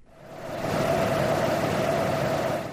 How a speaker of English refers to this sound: The noise you can hear in the background is coming from the cooling system for a computer so powerful that each one of these 30 or so cabinets in front of me consumes the same amount of power as 81 bar electric fires.